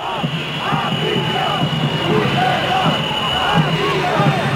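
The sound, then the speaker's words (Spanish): A large outdoor crowd jeers, boos and shouts continuously at acting head of government Pedro Sánchez in the Plaza de Neptuno. Overlapping voices form a loud, dense roar with rising calls and chants, such as "Puigdemont a prisión", throughout. “se han escuchado abucheos al presidente del gobierno en funciones.”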